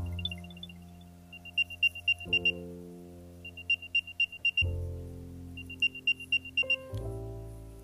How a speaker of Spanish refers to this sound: Le podemos dar reproducir sonido y sonaría así. Este es cuando el celular encuentra alerta Ahora le vamos a dar cómo suena alerta cuando le damos a reproducir sonido.